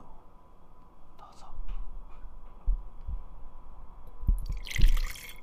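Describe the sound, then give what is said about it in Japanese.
Liquid being poured from a bottle in a soft, ASMR-like way: a few dull low thuds and gurgles, then a brighter splashing hiss swelling near the end, mostly quiet. “マイクにかけんなよ”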